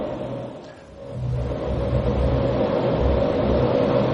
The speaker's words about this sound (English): But they say that 286 million gallons of water come up out of that hole in the ground at the base of that cliff every single day. Let us hear it a little bit louder, this, this roar of the water there.